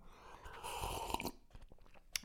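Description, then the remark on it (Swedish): Chewing of a cinnamon pastry, moist crackly bites over about two seconds, ending with a few sharp crunchy clicks. Nobody speaks. “Ta lite klunk kaffe på det. Men lite kanel för att få upp lite sån skön årskrönikestämning, det gillar man ju.”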